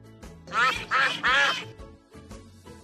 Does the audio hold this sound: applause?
no